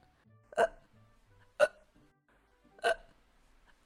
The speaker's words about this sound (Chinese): 听完妙妙鸭的故事，只见灰猪见一阵大笑后，不断的打嗝，停不下来的打嗝声，让灰猪见缓缓的降落。